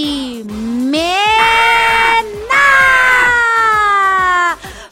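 Children cheer with long, sustained high-pitched shouts in two drawn-out bursts, while steady rhythmic clapping patters underneath, loud throughout before cutting off at the end.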